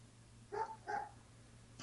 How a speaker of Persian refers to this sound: سگه صداد کرد نه این سگه اینجا حالا داستان داریم این پایین سگای اینجا نه من سگ ندارم تو خونه